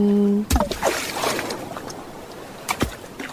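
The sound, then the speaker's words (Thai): After a brief steady electronic tone, waves wash and fizz across the shore of Hat Sai Kaew, a white-sand beach with clear sea water, with a few sharper splashes rising out of the continuous hiss of foam. “เอาเสียงคลื่นที่หาดทรายแก้ว เข้าเครื่องแปลภาษา เขาคงจะบอกเราว่า มาเที่ยวที่นี่สิ หาดทรายขาวน้ำทะเลใสรอคุณอยู่”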